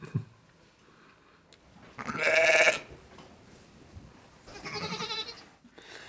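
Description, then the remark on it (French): Sheep bleat twice in a row, two loud, quavering cries a couple of seconds apart, with a quiet farmyard background in between and no one speaking. “je suis éleveur de brebis à Saint-Chef.”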